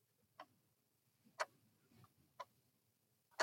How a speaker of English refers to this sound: No, no, that's that's actually a uh, an alarm clock that is you know it has the two bells on top kind of thing and.